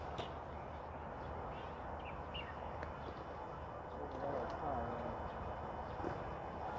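A faint cuckoo call, a couple of soft, low descending notes, rises briefly out of steady rushing background noise partway through; no one speaks.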